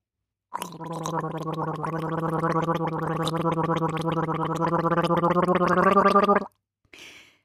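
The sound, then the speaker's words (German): Someone gargles water in one long, steady burst of about six seconds, a bubbling, throaty rattle with a low voiced hum, ending abruptly, followed by a brief soft spit or splash. “Da komme ich jetzt wieder aufs Gurgeln zurück.”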